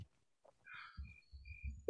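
A single quick, soft sneeze bursts out once and fades, leaving low background rumble with no talking.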